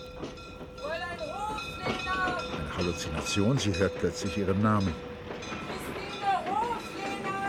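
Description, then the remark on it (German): A train rumbles and clatters steadily as it rolls into the station, with high screeching, whistle-like tones rising and falling, while a voice speaks over the noise of the rolling carriages. “Und erst wie der Zug einrollt, geht sie hastig hinaus.”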